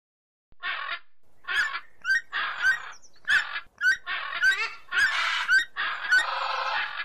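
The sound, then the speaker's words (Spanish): A flock of geese honking and squawking loudly in rapid, overlapping bursts, harsh nasal calls tumbling one after another with no pause, noisy. “Pájaros, pájaros, por favor. Chicos, dejadme hablar, que si no los oyentes no me podrán escuchar.”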